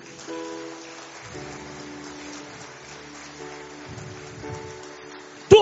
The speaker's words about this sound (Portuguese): Dê um aplauso a Jesus.